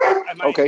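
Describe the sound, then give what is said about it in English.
A dog barks and yips a couple of times in quick succession, loud, overlapping with someone speaking briefly. “I apologize for the dog in the background.”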